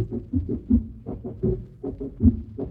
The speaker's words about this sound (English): I thought it was some sort of bizarre clip cloppy drum effect.